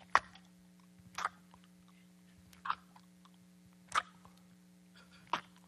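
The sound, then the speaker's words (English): A voice imitates a cow chewing its cud: five slow, wet, separate smacking chews spaced about a second apart over a steady low electrical hum, with no talking. “You know, when a cow gets a big piece of grass or hay in its mouth, it just.”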